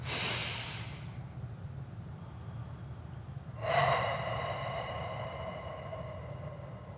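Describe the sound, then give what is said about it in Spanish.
A deep breath taken as a breathing exercise: a short airy inhale at the start, a pause, then a long audible exhale with a slight sighing tone, with no talking. “Podemos tomar momentos solo para respirar, una vez, por ejemplo”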